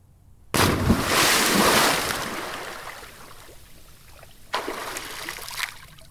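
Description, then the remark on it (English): A man jumps into a small frozen pond right after a rock he threw in: a sudden, loud splash into water, followed by a long churning wash that slowly fades, then a second smaller splash and sloshing near the end. No one speaks. “Right as the donkey was securely fastened to the tree, the stranger took a nearby rock and threw it into the frozen pond and quickly jumped in right after the rock.”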